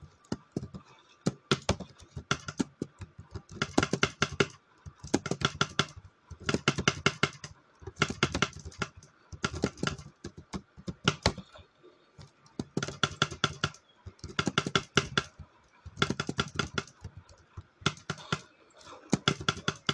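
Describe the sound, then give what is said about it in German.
Rapid bursts of typing on a computer keyboard, crisp key clicks coming in clusters separated by short pauses, fairly loud and steady throughout with no voices. “hört sich jetzt gerade voll an, als wenn ich übelst krass editieren würde.”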